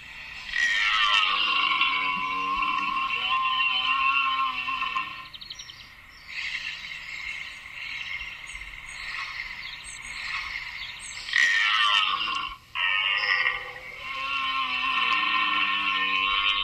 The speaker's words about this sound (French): Donc c'est très guttural, hein, c'est connu. Le, brame du cerf, c'est à l'automne, c'est ça, la fin de l'été, quand il est en, route Exactement, oui, c'est la période. Euh, bah, généralement, voilà, le mois de septembre, ça peut commencer fin août